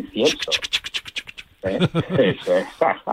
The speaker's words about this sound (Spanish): Y al final, en la última página, tienes un grabado del botafumeiro lo frotas con tus dedos, huele a incienso. ¿eh? Tú lo frotas.